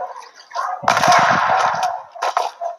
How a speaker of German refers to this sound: Da hinten ballert jemand. Hört sich doch schon mal gut an.